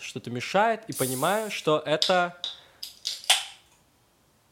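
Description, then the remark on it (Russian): A person speaks briefly, then imitates a can being opened with their mouth: a couple of short breathy clicks followed by a quick hissing burst that fades to quiet. “звук э, открывающейся банки, значит.”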